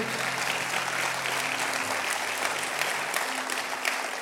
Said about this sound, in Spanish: Vamos, si le va a dar un aplauso, se lo da bien.